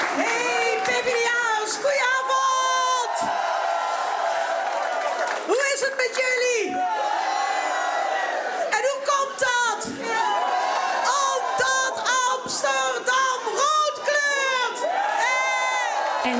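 A crowd erupts in loud, sustained cheering on election night, with shrill whoops and high-pitched screams rising over one another, continuous for the whole stretch with brief dips between bursts.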